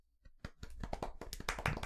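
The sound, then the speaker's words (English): A quiet, polite golf clap: a few soft, evenly spaced hand claps that gradually build into a brief patter of light clapping, with no talking. “Golf clap.”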